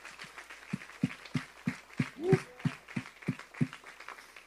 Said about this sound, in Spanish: Yo creo que Dios merece un fuerte aplauso por esa palabra.